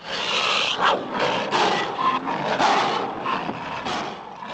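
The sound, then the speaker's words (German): A giant ape's roar for a 1933 film, made from a mix of lion and other animal roars played backwards: a loud, harsh bellow that surges continuously for several seconds in rough, swelling pulses, with no voices. “Die furchterregende Stimme 1933 war ein Mix aus Löwen und Tiergebrüll, das rückwärts abgespielt wurde.”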